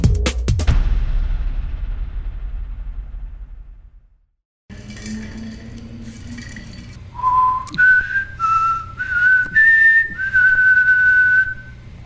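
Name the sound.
person whistling a tune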